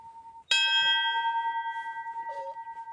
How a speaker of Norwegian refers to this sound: Klokke her, vet du. Mm. Ja, klokke, ja. Å, det er skipsklokka til Erik By.